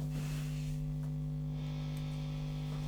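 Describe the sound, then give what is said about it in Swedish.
A steady electrical hum with strong low harmonics, topped by a faint wash of hiss, drones continuously from an idle guitar amplifier with its gain turned up a little, with no playing or talking. “Kommer ju bruset som ett brev på posten såklart.”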